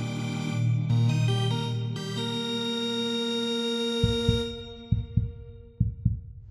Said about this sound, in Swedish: men ni hör pulsen slå.